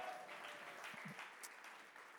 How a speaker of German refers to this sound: Das ist, komm, einen Applaus nochmal für die Leute, die seit zwei Jahren da sind.